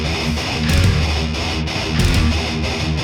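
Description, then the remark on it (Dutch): Fast, loud thrash metal with heavily distorted guitars churning dense riffs, pounding drums and bright cymbal crashes at regular intervals, a full, aggressive wall of sound with no talking. “En je hoort dat ook wel, vind ik nu, in die snelle, My. vunzige muziek.”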